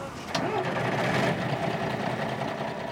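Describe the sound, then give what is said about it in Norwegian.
A bus engine starts up in the morning, a sharp clunk early on giving way to a steady, medium-pitched rumble that holds at an even loudness to the end. “På en buss om morgenen.”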